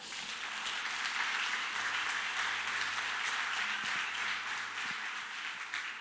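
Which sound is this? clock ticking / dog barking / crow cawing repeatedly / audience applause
audience applause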